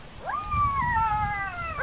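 A pack of jackals howls in the distance, one long rising wail that holds steady and slowly sags in pitch, with another cry starting as it ends, over a low background rumble.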